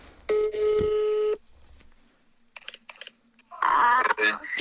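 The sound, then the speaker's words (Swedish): A phone call home being placed: a steady, loud tone for about a second, a pause, then a few short clipped beeps, followed by a voice speaking. “ja, jag måste ringa. Nu ska ni få höra.”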